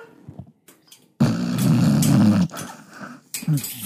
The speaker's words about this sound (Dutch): Die prachtige baby met die blauwe kijkers... die probeert nu met mijn microfoon het gesnurk van de hond vast te leggen.